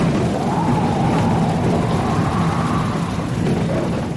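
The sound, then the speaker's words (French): Heavy rain pours steadily through a stormy wind during a thunderstorm with lightning, a dense unbroken roar with low rumbling underneath that stays loud for the whole stretch, with no voices. “La pluie est arrivée et elle n'est pas seule. Avec elle, les éclairs, les orages, mais surtout le vent.”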